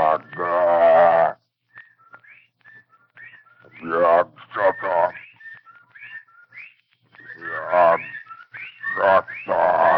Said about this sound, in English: And as Dr. Rice and I stood staring at this, this presence, the, the whippoorwills began to cry in unison outside the study window.